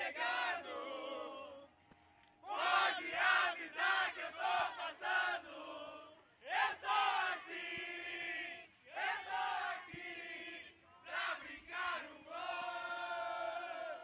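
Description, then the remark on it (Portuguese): A crowd of fans waiting in the queue for Garantido at a festival chants and cheers in loud, rhythmic bursts, many voices shouting together in repeated phrases with short pauses between, energetic. “E agora a gente tá aqui na fila do garantido, mano. A galera aqui empestada de gente, mano.”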